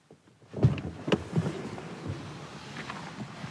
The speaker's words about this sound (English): That's me getting out of my car at the Houghton Land Preserve this afternoon.